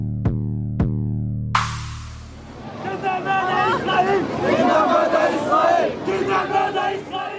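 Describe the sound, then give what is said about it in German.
Two short, ringing tonal hits open, then a loud crowd of hundreds at an Al-Quds Day demonstration against Israel in Berlin-Charlottenburg takes over, showing posters, many voices chanting antisemitic slogans and shouting together in a sustained, rising-and-falling roar until the end. “Hunderte demonstrieren gegen Israel, zeigen Plakate, skandieren offen antisemitische Parolen.”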